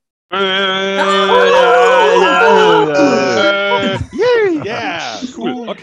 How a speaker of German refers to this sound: wir kriegen die Leute, die dabei sind, mal kurz dazu, die Mikros auszuschalten und wuhu zu machen oder sowas